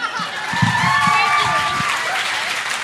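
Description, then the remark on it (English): A live audience at Dante's bursts into steady, loud applause that holds for a few seconds, with scattered cheers, whoops and a thin whistle rising above the dense clapping. “Let's hear for Sandra.”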